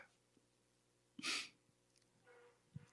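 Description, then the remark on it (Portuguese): One sharp nasal sniff bursts out from a person who is crying, followed by quiet breathy sounds and a soft catch of breath near the end; no one speaks. “É que eu já estou me fungando aqui, já estou chorando.”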